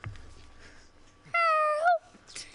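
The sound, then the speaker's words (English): A house cat lets out a single clear meow, loud, lasting about half a second and rising slightly in pitch at the end, against a quiet background. “we have a house cat here today.”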